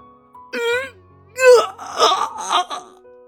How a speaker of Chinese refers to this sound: 突如其来的剧痛几乎把明的灵魂都给扯下。明终于压抑不住这剧痛，一声嘶哑的痛呼冲出喉咙。